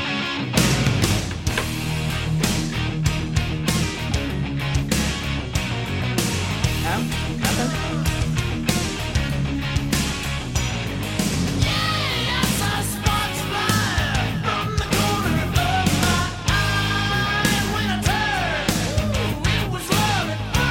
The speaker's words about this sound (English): have you ever heard …? It's this. this song.